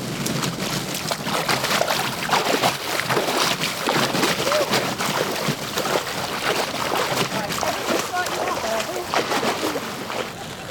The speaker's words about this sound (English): Well, the wind, I'm not exaggerating when I say the wind is howling up Loch Sunart. I'm getting smacked in the face by rain. It is absolutely freezing.